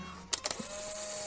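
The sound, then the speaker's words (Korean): A Polaroid instant camera's shutter clicks in a quick burst of sharp snaps, then a steady, mid-pitched motor whir follows as the printed photo is pushed out. No one speaks. “이 셔터를 누르기만 하면 바로 이 카메라에서 사진이 나온다는데 아니 무슨 거짓말을 하셔도 정도껏 하셔야지.”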